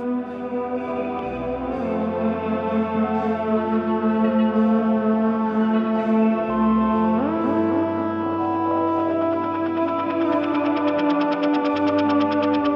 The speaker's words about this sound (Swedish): Han körde vidare lite med vad jag kallar för helikopterljudet där.